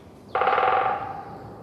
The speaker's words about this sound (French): Sur la double page 66-67, vous nous faites entendre un oiseau. Un autre oiseau, un pivert